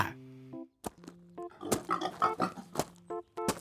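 A pig oinks and grunts repeatedly in short, uneven bursts, fairly loud, with brief pauses between the squealy snorts and no talking, as a pig farmer leads it home.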